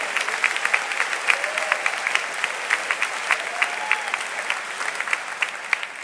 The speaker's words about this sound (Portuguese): Vamos honrar a recepção. Aplaudam a recepção da igreja.